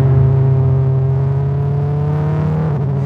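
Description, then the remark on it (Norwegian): A car accelerating at full throttle on the long straight of a runway drones loudly and steadily, its strong low hum holding nearly constant pitch with a slight climb toward the end, with no voices over it. “Jeg gir full gass for å ta han igjen, men idet rullebanen tar slutt og vi skal inn i en 90 graders sving, fortsetter bilen min rett fram.”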